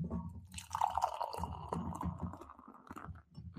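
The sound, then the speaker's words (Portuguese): Beer pours steadily into a glass, a continuous gurgling and fizzing stream of liquid lasting a few seconds, with no voices over it. “Ó, agora barulhinho é aqui, tem que ter.”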